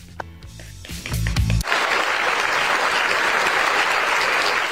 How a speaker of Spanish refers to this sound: Estaba esperando los aplausos, sí, estaban aplaudiendo mis compañeros